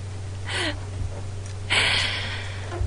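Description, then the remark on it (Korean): A cat named Koka lets out two short, breathy, raspy meows separated by a pause of about a second, heard over a steady low background hum with no talking. “코카는 조금 어, 이게 코카 목소리예요 안녕”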